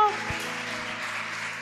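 An audience applauds to welcome a visiting guest, a dense wash of many hands clapping at once that holds at a steady, fairly loud level for the whole short stretch, with no voices rising above it.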